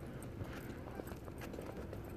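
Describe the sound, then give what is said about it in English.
A dog wearing boots or socks against the cold clicks and patters its paws in a steady walking rhythm while being walked in December in Canada, over a continuous background rumble with a faint voice murmuring underneath. “The cold hurts her feet, so you probably hear the pads.”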